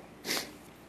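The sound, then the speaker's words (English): One short, breathy sniffle from someone with a head cold, drawing air in sharply through a stuffy nose, quiet, with nothing else around it. “Sorry about the sniffles here. I think I brought a cold back from Guatemala.”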